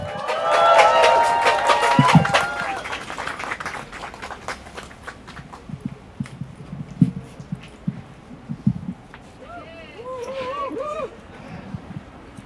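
At a demonstration, a crowd bursts into loud applause and cheering as a speaker is invited onto the stage, with high whoops and shouts at first, then the clapping carries on more thinly and fades while a few voices call out near the end.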